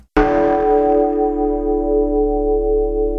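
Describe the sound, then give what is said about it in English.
A single bell tolls once with a sharp strike as the new year 2014 begins, then its deep, rich tone hums and rings on steadily, slowly fading while the resonant overtones linger loud. “Somewhere in the universe, a bell tolls.”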